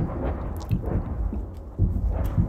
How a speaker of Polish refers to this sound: Podczas tej rozmowy nagle przerywa wam huk wyrzutni grad.